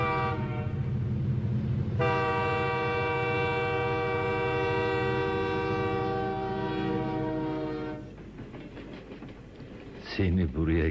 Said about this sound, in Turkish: getiren trenlerden biri daha geçti. Tıpkı 30 yıl önceki gibi.